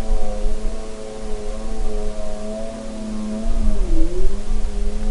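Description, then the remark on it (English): A snowmobile engine drones steadily and fairly loud, its pitch holding level before briefly dipping and rising again near the end, with no voices present. “And then the third category is anthrophony, and that's human generated sounds. Everything from people talking while they're hiking through an ecosystem to an airplane flying overhead to something like this snowmobile.”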